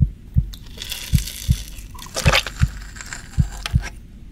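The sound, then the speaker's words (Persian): A beating heart thumps in low, muffled pulses, paired beats repeating at a steady rhythm, with faint wet, crunchy textures sounding above them. “قلبشون رو که هنوز گرم و میتپه رو دستش بگیره و ببینه”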